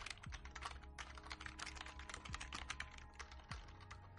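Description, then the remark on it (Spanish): Rapid, irregular clicking of keys on a computer keyboard, fairly loud, with a low steady hum underneath and no voices; the person is typing on a newly changed keyboard while searching online for the letters. “Es que se me ha cambiado el teclado ahora y estoy buscando por internet todo el rato las letras para no tener faltas.”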